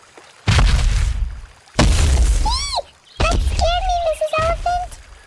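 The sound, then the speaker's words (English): Loud, heavy crunching footsteps on rocks: two or three long, gritty crunches, followed by high-pitched squeaky, voice-like chirps mixed in with more crunching. “How about if we add some sounds of footsteps? I love the crunch of feet on rocks.”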